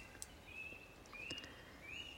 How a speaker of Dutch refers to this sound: En ik zit nu dus in het bos op een boomstam met je. Ik denk dat je de vogels kunt horen. Ik voel de zon in mijn gezicht.